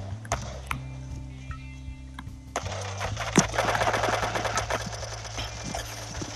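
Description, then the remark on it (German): Video game MK7 assault rifle gunfire crackles in rapid bursts, getting denser and louder in the second half, over a steady low musical hum with no one talking. “Den habe ich mit einem grauen MK7-Sturmgewehr gekillt bin lost.”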